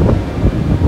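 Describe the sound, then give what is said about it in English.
A loud, steady low rumble with a rough, churning texture from a roller coaster thundering by overhead, heard from right underneath it, filling the whole moment with no voices. “we're actually sitting right underneath it right now, in yeah. case you're wondering what that noise is in the background.”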